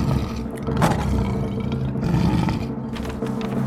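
A circus lion roars loudly, a deep, rumbling growl that holds steady for several seconds with no voices around it.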